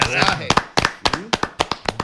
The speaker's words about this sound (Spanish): Un aplauso, carajo. Aplauso,